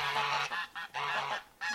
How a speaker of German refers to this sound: So, jetzt streiten sich die Gänse erstmal.